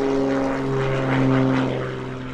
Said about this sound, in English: but anyway, anybody who lives near an airport knows that sometimes the sound can be so invasive.